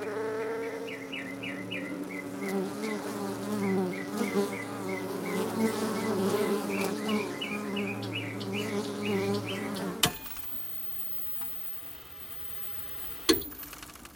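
insect, bees buzzing

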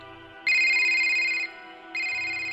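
signal or alarm, phone ringtone

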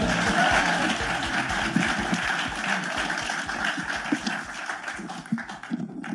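crowd, audience applauding and cheering

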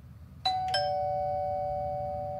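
household object, doorbell ringing

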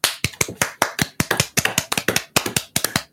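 crowd, spontaneous applause

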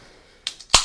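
food or drink, beer bottle being opened

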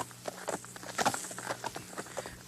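animal, horse hooves clip-clopping

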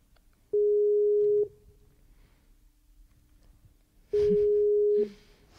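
signal or alarm, skype call ringing tone

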